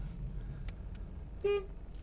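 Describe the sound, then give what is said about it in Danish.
A single short car horn honk sounds in front of a house to signal the person inside, a brief bright toot over the low rumble of an idling vehicle. “Lige dyt lidt af ham.”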